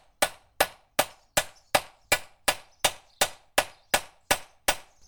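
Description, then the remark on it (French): Steady metallic hammer strikes on an anvil as a scythe blade is peened, about a dozen sharp ringing blows at an even, brisk rhythm, loud, each with a short bright decay. “Du coup, avec le marteau, en fait, on. Ça, c'est un peu pénible pour les oreilles.”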